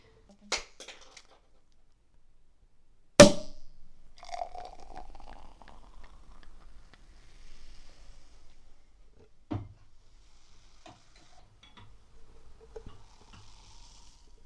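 A sharp pop rings out as a champagne bottle is opened, followed by fizzing and trickling as the champagne is poured for a toast, with a few clinks and soft handling noises; no one speaks.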